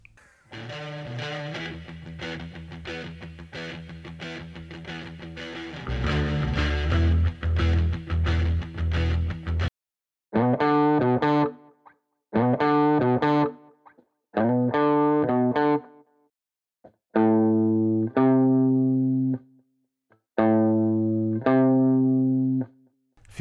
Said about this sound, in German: Dann kommen wir zur kleinen Terz. Auch Mollterz genannt. Die kleine Terz ist drei Halbtöne oder eineinhalb Ganztöne entfernt. Auch hier haben wir ein Kult-Rock-Intro als Beispiel.